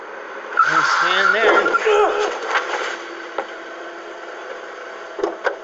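A car skids with a sharp, wavering tire squeal lasting a couple of seconds, followed by a few faint thumps as it hits a man, and quiet background noise.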